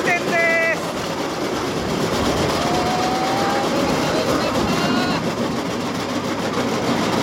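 A small rail car, the North Island trolley at Torokko Oukoku, running on its track: a steady, loud rumbling roar throughout, with a brief high metallic squeal at the start and a thin whining tone partway through.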